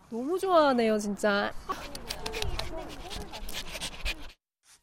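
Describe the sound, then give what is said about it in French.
Dogs whine in high, wavering tones, then breathe in quick, rhythmic pants, with lively scuffling noise of dogs running and playing off leash in a dog park, continuing until the sound cuts off abruptly. “Les propriétaires d'animaux font une pause aux tables, tandis que leurs chiens profitent de leur liberté et font de l'exercice. Les animaux courent sans laisse.”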